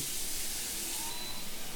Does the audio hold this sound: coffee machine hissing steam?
yes